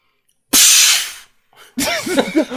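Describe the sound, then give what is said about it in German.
A loud, sharp pneumatic hiss of the brake releasing on the Nessie roller coaster, a looping Schwarzkopf coaster, in its tunnel at the second-to-last curve, bursts out for under a second, then a second noisy rush follows with wavering, swooping squeals over it. “das ist im Tunnel vom Nessie, ich glaube, die, die vorletzte Kurve, wenn die Bremse, glaube ich, löst.”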